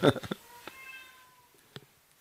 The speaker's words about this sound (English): I can hear the furry cobra in the background there meowing up a storm.